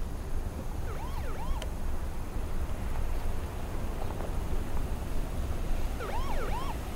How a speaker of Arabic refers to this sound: سامع الصوت؟ فهد شوف في سيارة جاية